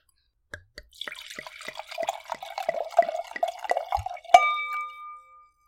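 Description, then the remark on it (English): Wine glugs and splashes as it's poured into a glass for a few seconds, ending with a bright ringing clink of glass that fades out. No one speaks. “Anyway, I'm going to pour my wine.”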